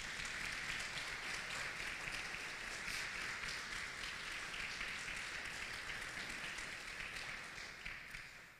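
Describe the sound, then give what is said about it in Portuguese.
An audience at a church service applauds Jesus together, a dense, steady wash of many hands clapping that holds at an even level before tapering slightly at the end. No one speaks over it. “Todos digam amém e aplauda mais uma vez Jesus.”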